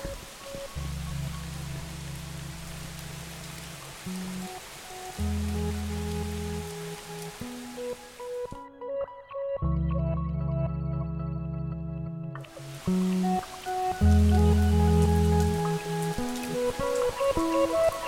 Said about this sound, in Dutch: Het is hier ondertussen aan het regenen, regenen, regenen. Is toch ook zo ontspannend. Wat zal de natuur weer blij zijn? De regentruppeltjes vallen op de planten.